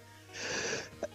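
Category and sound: human body sound, sneeze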